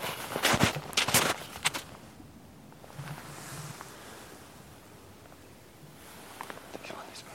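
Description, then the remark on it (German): Two people stalk carefully through the forest, their few footsteps crunching on the forest ground, then stopping for a long, hushed pause to listen before a couple of fainter steps resume. “Vorsichtig steigen wir voran. Martin voraus, ich hinterher. Ein paar Schritte gehen, stillstehen, horchen.”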